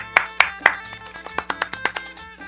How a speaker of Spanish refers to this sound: Aplauso, güey.